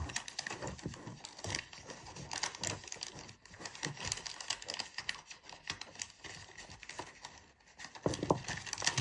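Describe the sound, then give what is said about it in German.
Continuous crinkling and rustling of wrapping paper being folded and pressed while wrapping a gift, with quick irregular crackles and taps throughout as a sticker is applied, a bit louder toward the end; no one speaks. “Und jetzt brauche ich wieder einen Aufkleber.”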